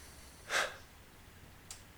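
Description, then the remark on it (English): A breathy exhale puffs into the microphone, followed about a second later by a fainter second breath, with no talking and a quiet background. “Wow, you can hear my breathing on this thing.”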